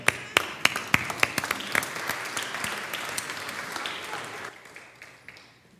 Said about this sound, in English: Let's clap.